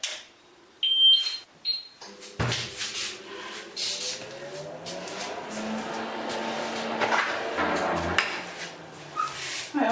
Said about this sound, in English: Now it's time for the dryer. Now I feel if I have something forgotten. No. Now I program the dryer.